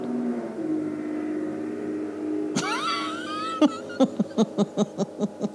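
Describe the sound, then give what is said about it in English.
A car outside: a steady low engine-like rumble, then a warbling tone followed by a quick run of evenly spaced, sharp honking beeps, moderately loud, with no talking. “I want because you know I gotta yeah I gotta give the car outside some space.”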